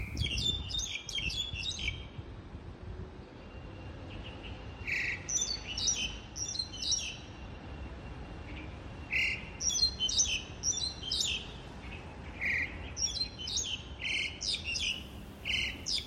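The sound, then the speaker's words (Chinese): One bird sings in a tree in a park, recorded in late autumn, with repeated bursts of bright, high chirps and trills. The phrases come in quick clusters with short pauses, over a soft, steady outdoor hum, and nobody speaks. “那我们今天听到这个第一个声音呢，就是屋顶两鸟的声音，这个是在矮英家附近的公园录下来的。”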